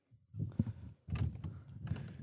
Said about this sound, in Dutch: Kijk eens aan, de deur gaat open.